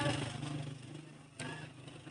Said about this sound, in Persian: و دیگه کار صدا گذاره دیگه نمیدونم چرا استفاده کرده صدای موتورم خیلی استفاده کرد صدا گذارمون دیگه اگه اذیتتون کرد به بزرگ خودتون ببخشید